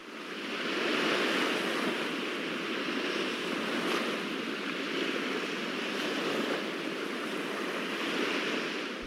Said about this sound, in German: Sie legen die Blumen an den Strand und die Wellen holen sie sich und ziehen diese ins Meer.